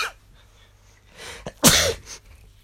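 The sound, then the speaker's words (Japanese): A single sharp sneeze bursts out after a short inhaled build-up, loud and explosive against a quiet background, followed by a brief breathy tail. “ごめんなさいくしゃみ出ちゃったあすいません。”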